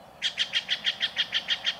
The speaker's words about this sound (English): This loud, raucous call belongs to a common jay of the western states, the Steller's jay.